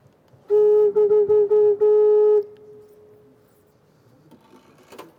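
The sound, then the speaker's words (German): A single organ flue pipe sounds a steady pitched tone when blown by mouth as a demonstration, stuttering in several short bursts for about two seconds before fading, loud with no talking. “Aber bei einer normalen Pfeife kann ich das sehr wohl demonstrieren und kann da mal einen Ton rausholen.”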